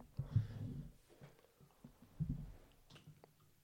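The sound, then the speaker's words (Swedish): Someone drinks water: a burst of gulping and swallowing, a pause with small mouth sounds, then another swallow. Nobody speaks. “Du, nu behöver jag fan ta en liten paus till och bara dricka lite vatten.”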